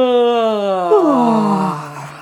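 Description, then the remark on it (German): A single exaggerated, voiced yawn on an open "ah" vowel, loud, held for about two seconds, with the pitch sliding downward partway through before trailing off, done as a voice warm-up exercise. “gähnt ruhig mal alle mit.”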